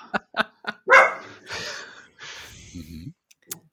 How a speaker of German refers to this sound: Der Hund meldet sich.